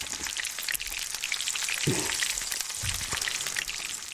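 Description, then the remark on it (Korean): Steady, dense crackling and sizzling of battered radish pieces, cut to index-finger size, deep-frying in hot oil, fairly loud throughout, with a couple of soft low bumps midway as the pan is moved or stirred. “물을 검지 손가락 크기로 다 자른 다음에 튀김옷을 입혀서 튀기면 되는데요.”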